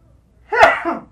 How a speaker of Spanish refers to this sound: Salud. Estornudo de etiqueta.